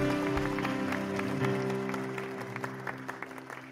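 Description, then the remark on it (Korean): A church audience claps together in applause of glory to God, a dense, steady burst over sustained keyboard chords, loud at first and gradually thinning and fading toward the end. “다시 한번 하나님 앞에 우리 영광의 박수 크게 올려드립시다 할렐루야”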